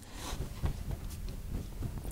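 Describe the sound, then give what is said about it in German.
Soft, irregular crackling of paper being handled, a string of brief crinkly bursts running continuously without any talking. “Du, du, du, raschelst die ganze Zeit mit dem Papier.”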